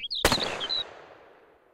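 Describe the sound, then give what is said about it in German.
A single sharp, loud gunshot, fired while hunting birds to bring down a singing lark, cracks out amid the lark's high, twittering song, leaving a long fading echo; the song trails off briefly after the shot and then falls silent. “Mein Sohn, siehst du die Lerche da oben fliegen? Nun, ich werde sie herunterholen.”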